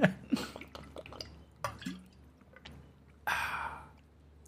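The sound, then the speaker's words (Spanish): Someone drinks water right up against the microphone: a few wet gulps, clicks and lip smacks, then a loud, breathy exhale after drinking. No one speaks. “a coger agua porque de verdad estoy, estoy tan emocionado, estoy tan exaltado.”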